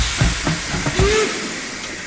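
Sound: steam locomotive hissing steam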